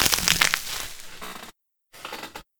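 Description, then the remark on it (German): Bubble wrap being crushed crinkles and pops in a dense burst of sharp, crackling snaps for over a second, then stops briefly before a second, shorter flurry of crackling pops. “Komm, Knisterfolie.”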